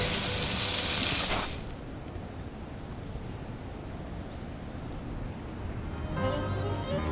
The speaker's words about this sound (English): what is something that won't harm anybody if they came in contact with it. Um, you know, napalm's out of the question, so let's try water and a heavy, concentrated stream of water.